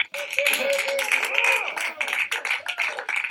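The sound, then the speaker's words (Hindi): NASA scientists and staff at the Jet Propulsion Laboratory near Los Angeles cheer and clap together as the Perseverance spacecraft touches the surface of Mars, with many overlapping voices whooping and a dense, continuous patter of applause, loud throughout. “NASA के अंतरिक्ष यान परसवियरेंस ने जब मंगल की सतह को छुआ तो लॉस एंजलिस शहर के नजदीक नासा की जेट प्रोपल्शन लेबोरेटरी में इस अभियान से जुड़े कुछ वैज्ञानिक और स्टाफ झूमने लगे और तालियों की गड़गड़ाहट गूंज उठी”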